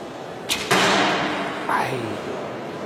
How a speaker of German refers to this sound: Äh, er legt an, Achtung, zieht. Genau. Zack. Zieht von hinten den nächsten Pfeil.